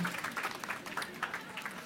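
An audience applauding, a dense, steady patter of many hands clapping at an even level throughout, with no voices standing out.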